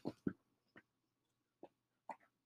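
A pet named Houdini scratches at a couch in a few short, irregular scraping bursts, with quiet pauses between them and no talking.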